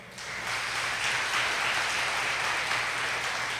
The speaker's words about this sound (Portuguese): E agora eu quero uma salva de palmas para o Senhor.